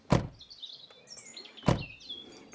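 Soft, scattered birdsong chirps and warbles in the background at dusk as birds return to their nests, broken by two sharp, loud thuds, one at the start and another midway through.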